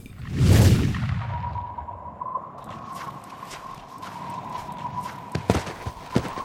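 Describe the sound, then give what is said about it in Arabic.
A sudden rushing swell opens. Then a man's quick footsteps tap out a hurried, uneven rhythm over a steady high drone, growing a little sharper toward the end, as he comes in haste from afar. No one speaks. “خطوات سريعه ومتلاحقه رجل من بعيد قادم على عجل”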